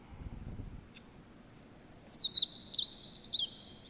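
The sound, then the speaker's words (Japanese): A meadow bunting sings a quick, high-pitched phrase of about a dozen rapid chirping notes lasting over a second, clear against a quiet background with faint low rumble beforehand. “で、この法事ですけども、今聞いていただきましたけど、これを聞きなし、人の言葉に置き換えたものを言うとですね、法事の聞きなしは、えー、一筆形状つかまつり候、または札幌ラーメン、味噌ラーメンって言ってるように聞こえると。”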